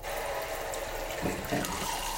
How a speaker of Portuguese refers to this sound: Tô pondo água aqui na minha xícara de café.